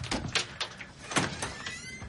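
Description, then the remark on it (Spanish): A door chain rattles and slides free, followed by a door being opened. Several sharp metallic clinks and scrapes come in quick succession, fairly quiet, with no voices. “Se acerca a la puerta y quita la cadena.”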